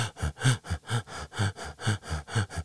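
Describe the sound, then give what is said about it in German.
A voice imitates quick, gasping breaths, about a dozen sharp in-and-out pants in a steady, rapid rhythm, fairly loud with nothing else around them. “Also es ist halt so, ähm, wie man eigentlich auch atmet, weil wir atmen ja nicht immer, wir haben ja nicht eigentlich immer diese Schnappatmung, dieses”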